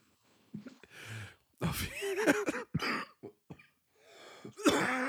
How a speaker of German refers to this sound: oh nein, jetzt muss er sich doch übergeben. Nein, ich habe nur ein, ein, ähm, ein bisschen husten müssen. Glaube ich. Oh, ich glaube, es ist noch nicht vorbei.